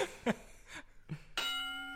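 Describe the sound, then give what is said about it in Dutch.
A few short, dull knocks, then a bell is struck once and rings out loudly, its bright tone sustaining until the end. No one speaks. “rot, rot op met die bel.”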